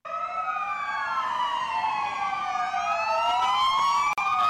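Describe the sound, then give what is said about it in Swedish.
A Spanish police siren wails continuously, its pitch sweeping up and down in overlapping glides, loud, with no voices and only faint road noise beneath. “kommer vi till näst sista frågan och det är då, är den här polissirenen spansk eller dansk?”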